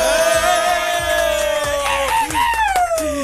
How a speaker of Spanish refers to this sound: Démosle la bienvenida con un fuerte aplauso. ¡Bravo!